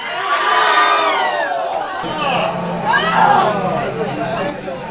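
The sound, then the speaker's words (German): A pub crowd of Bayern football fans lets out a loud, collective groan as Aubameyang scores in the 11th minute to put Dortmund 1-0 up, many voices swelling and sliding downward in pitch, then a second wave of dismayed moaning over a murmur of chatter. “So bin ich aber der Einzige, der in der 11. Minute nicht laut aufstöhnt, als Aubameyang das 1 zu 0 für Dortmund schießt.”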